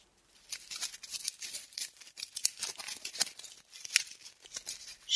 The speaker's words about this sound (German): Scheiße, was ist das denn? Das sind die Ratten. Die sind harmlos. In verfallenen alten Ruinen fühlen sie sich am wohlsten.